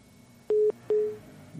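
A telephone busy tone after a caller hung up the receiver: two short, steady beeps at a single pitch, the second fading out, clear over a faint line hiss with no talking.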